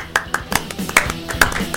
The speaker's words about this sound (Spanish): Sí, acá con nosotros, aplausos.